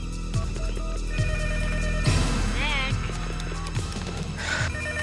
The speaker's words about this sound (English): pick up the phone.